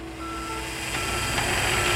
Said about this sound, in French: Perceuses, marteaux et autres outils de chantier bruyants ont ainsi remplacé les trompettes, les guitares et les mélodies qui d'ordinaire résonnent dans l'appartement de cet homme à première vue sans problème.